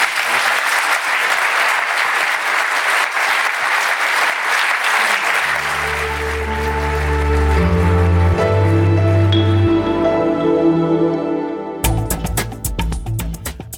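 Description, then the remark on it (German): A crowd at the Zeit matinee applauds steadily and loudly in a farewell round for Boris Palmer, mayor of Tübingen. Music enters around the midpoint with low sustained tones and layered instruments, the clapping continuing beneath before a sharper percussive section at the end. “Bevor Sie aber Ihre Ausweise zeigen, bitte verabschieden Sie Boris Palmer erst nochmal mit einer großen Runde Applaus.”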